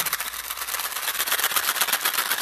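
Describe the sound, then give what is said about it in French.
A cardboard box of Smarties candy shaken steadily, its little pieces rattling in a fast, dense, crisp clatter that keeps going without a break. Fairly loud, with no voices. “C'est mon cousin Smarties. C'est vrai. C'est comme si c'était un serpent à sonnette, mais qui sonne plus comme un serpent à sonnette.”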